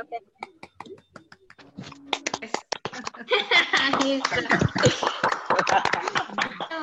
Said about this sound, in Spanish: le pediría a todos que ya para ir cerrando este, esta sesión puedan prender sus micrófonos y podamos aplaudir